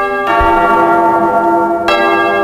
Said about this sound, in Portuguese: Toca o sino, sacristão.